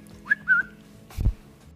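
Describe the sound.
A person whistles a brief two-note phrase, clear, the first note rising sharply and the second held a little longer, followed by a dull low thump; whistling used to escape a Russian airbase prison in a Bond film.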